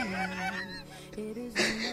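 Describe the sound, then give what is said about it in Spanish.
A patrol car horn honks in a few loud, sustained, nasal blasts that shift in pitch, with no voices around it. “inmediatamente una patrulla le pitó.”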